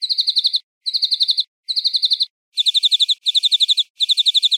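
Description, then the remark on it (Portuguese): A brown thornbill mimicking New Holland Honeyeater calls: six bright bursts of rapid, high chattering notes, the first three slightly different in pattern from the last three, with short pauses between. “Agora ouça o canto do acantisa imitando esse New Holland Honey Eater.”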